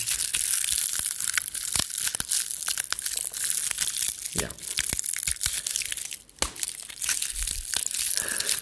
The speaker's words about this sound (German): Wofür hast du Pinienkerne mitgebracht? Oder Ach so, ne, das ist, äh, das kannst du für Feuer machen, dass, wenn das so ein bisschen knackt und sowas.